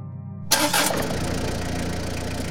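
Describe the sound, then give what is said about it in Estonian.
A car engine cranks and catches with a sudden burst about halfway in, then settles into a steady idle rumble as the car starts and turns around. Nobody speaks. “auto käivitus ja keeras otsa ringi.”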